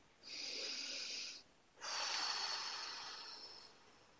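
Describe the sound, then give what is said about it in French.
A slow, deep breath taken as a guided breathing exercise: one long, airy inhale, a brief pause, then a longer, gradually fading exhale. No one speaks. “alors, on va faire une respiration.”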